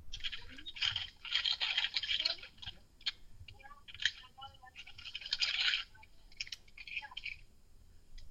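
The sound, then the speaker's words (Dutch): Crinkly rustling of a paper bag in bursts as a book is slipped inside at the bookshop Boekhandel over het Water in the Van der Pekstraat, with scraping and handling sounds over several seconds and a faint voice briefly underneath. “Doe je maar rustig een boek in een zakje.”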